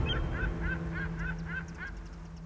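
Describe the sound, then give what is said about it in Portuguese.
A flock of geese honks in a rapid series of repeated calls, about seven evenly spaced honks over a steady low rumble, moderately loud. “O barco vai, os pássaros vão.”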